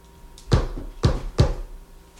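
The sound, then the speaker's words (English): Three dull, muffled knocks on wood from the other side of a bookshelf, the last two a little closer together, with no talking. “If that's you, knock twice, then once.”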